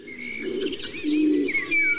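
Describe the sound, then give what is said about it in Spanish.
Natural forest park ambience in Garajonay park on La Gomera, Canary Islands: a pigeon's low, steady cooing sits beneath a scatter of bright chirps and tweets from several small birds, with no voices. “Este es el Parque de Garajonay, en La Gomera, en Canarias, que suena así.”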